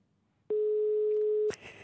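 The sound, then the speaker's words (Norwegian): A single steady telephone ringback tone, one clear mid-pitched beep lasting about a second, loud over a quiet line, followed by a brief burst of noise as it cuts off. “Nå ringer det.”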